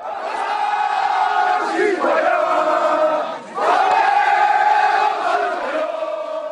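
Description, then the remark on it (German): A crowd of about 100 Jewish people loudly bellowing the Marseillaise in unison while guarding a synagogue during riots in Sarcelles, France, sustained sung notes with rising phrases, dense, with a brief dip in volume midway before the chanting swells again. “Während im Hintergrund die Rauchschwaden jüdischer Geschäfte in den Himmel ziehen, versammeln sich etwa 100 Juden, um die Synagoge vor den Krawallen zu schützen. Lauthals brüllen sie die Marseillaise.”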